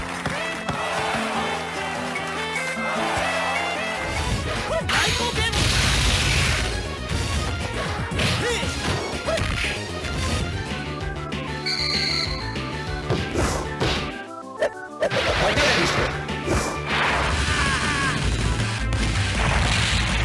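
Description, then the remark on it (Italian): Neo Geo arcade cabinet game sound effects, loud and continuous: a driving synthesized soundtrack punctuated by repeated crashing hits and impacts, with a short drop out near the end before the action resumes. “ma da quello che si riesce a sentire, dalle emulazioni, io purtroppo non ce l'ho mai avuta, non penso di averla mai perché veramente ancora oggi costa molto cara, ma era veramente il suono del cabinato.”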